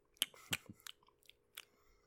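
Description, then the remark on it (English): An animal munches on crisp greens mixed with harvested herbs, with a handful of sharp, crunchy bites coming at an uneven pace. The chewing is fairly quiet, and no one speaks. “Ah, she's uh she's uh, munching very happily. Munch, munch, munch.”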